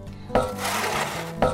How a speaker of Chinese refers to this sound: 遇到前面被山挡住，无法前进，工人得在山壁上努力挖出一条隧道，让水从隧道中通过这座山，继续往前流。 啊，好难挖呀！